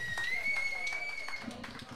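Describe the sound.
Audience applause: a steady patter of many hands clapping at a lively, even level, with a long high whistle-like tone running through the first part and some voices mixed in.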